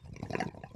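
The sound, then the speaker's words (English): Water bubbles and gurgles through a bong as smoke fills its reservoir during a hit, a brief, steady burst of dense, irregular burbling with no voices over it. “Smoke is filling the reservoir.”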